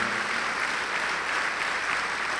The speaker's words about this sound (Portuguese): Vem, filho pródigo, vem, filha pródiga, e vamos aplaudir ao nome de Jesus por cada vida que está chegando.